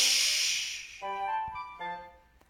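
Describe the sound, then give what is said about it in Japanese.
Train doors hiss open with a loud, sharp burst of air lasting about a second as the train arrives at the next station, followed by a short series of electronic chime tones and a faint click near the end. “電車が次の駅に着くとドアが開いて、今度はライオンのお父さんと、ライオンの男の子が乗ってきました。”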